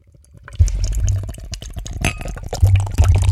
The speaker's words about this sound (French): Comme vous l'entendez, c'est une canette. Oh là là.